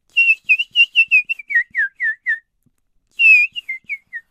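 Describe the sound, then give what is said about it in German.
Nightingale song of clear, high whistled notes: a quick run of about a dozen chirps stepping downward in pitch, a brief pause, then a long note and four falling shorter ones. No talking. “Jorinde war in eine Nachtigall verwandelt, die sang”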